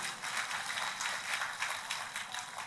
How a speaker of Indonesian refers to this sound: Tepuk tangannya yang meriah buat Tuhan kita.